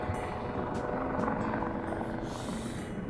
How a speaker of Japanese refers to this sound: で、めっちゃヘリがまた来てるな。何なんだろうな。ずっとね、ヘリが海の上飛んでて結構低い位置で。